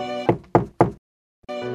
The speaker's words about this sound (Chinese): 这个时候，他想一想，还是不能放弃。他继续的去敲门，